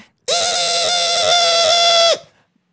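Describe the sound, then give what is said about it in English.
A person vocally imitates the screeching showerhead in their home shower with one loud, sustained, high-pitched whine that holds steady for about two seconds before cutting off abruptly. “He's just listening to our fucking screeching showerhead. That thing is just like”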